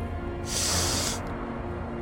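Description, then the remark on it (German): A man sniffs once, a short, airy intake of breath through the nose lasting under a second, distinct over a low, steady background hum. “schnieft.”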